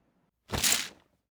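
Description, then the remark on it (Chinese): Foley of a curtain being drawn open, made by rolling an abacus on the floor for the curtain track plus shaking curtain cloth: one quick, rough swish lasting about half a second, rising and fading fast. It is fairly loud and heard alone, with no voices. “这个是拉开窗帘的声音”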